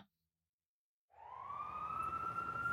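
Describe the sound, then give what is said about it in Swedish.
After a second of silence, a police or ambulance siren swells in and rises steadily in pitch, growing loud as it wails alone with a low engine rumble underneath. “På bara några minuter var polis och ambulans på plats.”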